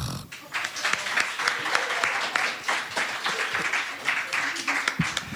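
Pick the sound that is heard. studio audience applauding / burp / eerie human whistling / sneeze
studio audience applauding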